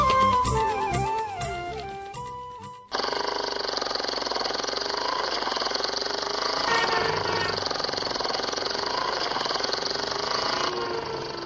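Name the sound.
motorcycle engine running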